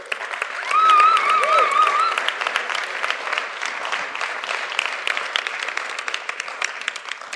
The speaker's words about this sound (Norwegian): Vi gir Trønde Margrethe en skikkelig klapp.